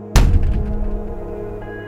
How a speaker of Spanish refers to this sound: Y, como no podía ser de otra forma, la casa quiso dejar patente que no estaba solo, cerrando el cuarto de mi tía de un portazo.